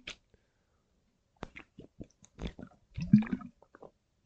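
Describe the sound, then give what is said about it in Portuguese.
Someone sips water, with a few short wet slurps and swallowing clicks spread over several seconds, then a louder gulp near the end; no one talks. “Vou dar aqui um treco na aguinha.”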